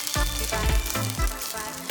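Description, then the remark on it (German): Salmon frying in extra virgin olive oil: a steady, dense sizzle and crackle runs throughout, with a few soft low thumps from the pan at irregular intervals. No one speaks. “Zuletzt wird der Lachs in nativem Olivenöl gebraten.”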